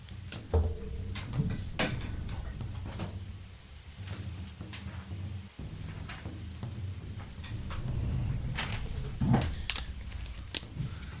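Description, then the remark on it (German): Rummaging sounds as someone fetches a notepad and pen: scattered knocks, clicks and scrapes at an irregular pace, with a drawer-like slide and a low steady hum underneath. No one speaks. “Ich hole mir kurz einen Zettel und einen Stift.”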